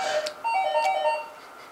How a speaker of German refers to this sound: es klingelt.